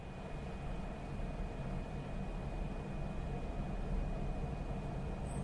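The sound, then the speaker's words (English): A steady, continuous drone of well-running industrial equipment in an industrial setting, with a constant high whine, running evenly with no knocks or changes in rhythm. No one speaks. “That is the sound of well running equipment in an industrial setting.”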